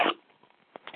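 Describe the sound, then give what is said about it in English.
A single short, sharp sneeze bursts out at the start, followed by quiet stretches with a few faint, soft breathy noises. “Bless oh, you. Gesundheit.”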